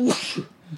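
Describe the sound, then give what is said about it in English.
A single sneeze bursts out loud at the very start, a sharp breathy blast that quickly trails off into quiet, with no talking. “Bless you”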